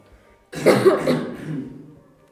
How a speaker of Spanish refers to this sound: Cogieron el baúl y tiraron hacia arriba abriéndolo. Una nube de polvo salió volando, provocando que cerraran los ojos, sin poder ver lo que había dentro, y que comenzaron a toser como locos.